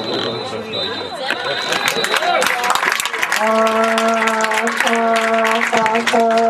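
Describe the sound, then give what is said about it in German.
Dense, continuous stadium applause with crowd noise at the final whistle of a football match on 9 June, loud and steady, with the stadium announcer's voice; partway through, a sustained droning tone with a brief break sounds over the clapping. “Applaus im Hintergrund, die Stimmen des Stadionsprechers,”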